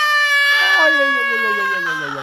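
A newborn baby, just born, cries loudly and continuously, a single sustained wail with a wavering, rising-then-falling pitch, alone with no talking over it.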